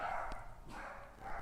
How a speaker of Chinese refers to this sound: 不好意思哦，刚刚我们家小狗狗在吠，所以我停掉了。